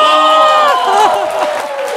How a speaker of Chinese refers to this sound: 让我们来一个梅赛德斯奔驰中心的掌声和欢呼，好吗？